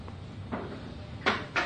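A chair is shifted across the floor into place at the end, in a few short scraping bumps, one soft and two louder.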